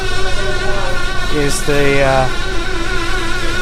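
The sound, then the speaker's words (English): A steady electric motor whine with a constant pitch hums throughout, moderately loud, from a jamon meat slicer being cleaned by a worker in a supermarket in Spain, while a man briefly speaks over it. “jamon slicer, the meat slicer in the supermarket, which the guy is cleaning.”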